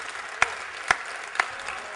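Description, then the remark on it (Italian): Steady audience applause, a dense wash of many hands clapping with no voices, and a few sharper, louder claps punching through at regular intervals. “Grazie di questo applauso perché ho avuto la sensazione che siete ancora vivi.”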